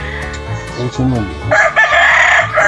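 A rooster lets out a loud crow, a long strained call filling the second half, preceded by low voices or murmurs in the background.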